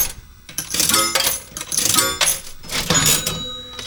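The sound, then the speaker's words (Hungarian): A Las Vegas casino jackpot payout: bright electronic chimes ring over a rapid, continuous clatter of coins spilling into a tray, loud and busy for several seconds without any talking. “Ez, ez Vegas, mikor megnyered.”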